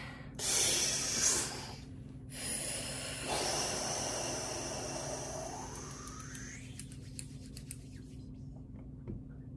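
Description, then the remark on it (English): Loud deep breathing: a short, sharp inhale, a brief pause, then one long, airy exhale that gradually fades out, with no talking. “All right, let's go ahead and take a deep breath.”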